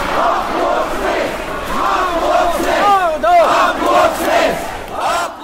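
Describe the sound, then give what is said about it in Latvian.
Supporters of presidential candidate Enziņš chant loudly and continuously at the Saeima building in Latvia on 31 May 2007, as Zatlers came out of the session, many voices rising and falling together in rhythmic waves, with one shouted call sweeping upward midway through. “Kad Zatlers iznāca no saimas sēkas, otra prezidenta amata kandidāta Enziņa atbalstītāji sāka skandēt.”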